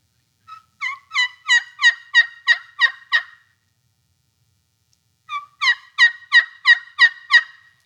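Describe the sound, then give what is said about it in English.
Two clear series of turkey hen yelps calling to attract a tom turkey, each about eight evenly spaced notes rising in strength, separated by a short pause; no talking. “He may have 20 hens around him, but he know, you know what? There's another one, and she lonely because that's what that says.”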